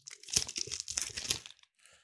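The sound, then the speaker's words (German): A gift box being unpacked: busy crinkling and rustling of packaging with a few sharper tearing crackles over about a second and a half, then a brief softer rustle after a short pause. “Mach, stell doch mal eine Frage, weil ich glaube, es war nicht langweilig, mir beim Zug auspacken zu”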